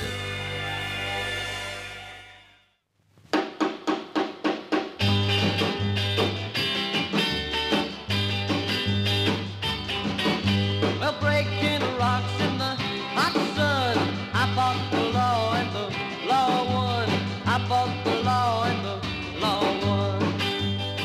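An early rock and roll recording from 1961: a held chord fades out, then sharp guitar and drum hits kick in and a full band settles into a steady bouncing groove with singing, loud and upfront.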